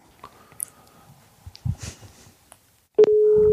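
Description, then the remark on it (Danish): A phone line's ringing tone on an outgoing call: a steady, loud electronic hum that sounds abruptly after a few seconds of faint clicks and rustling handling noises, continuing to the end. “Det ringer sgu.”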